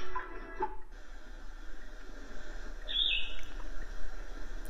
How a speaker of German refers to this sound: Vogelgezwitscher.